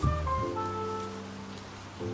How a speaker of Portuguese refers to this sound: Na cidade onde você mora, os ônibus param de passar depois de um certo horário você corre pra parada e quando você tá umas sete quadras da parada, começa uma chuva.